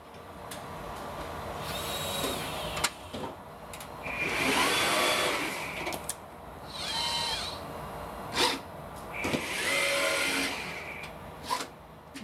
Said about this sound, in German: Willst du mal hören, wie ein Roboter klingt, der kleine Gehirne produziert?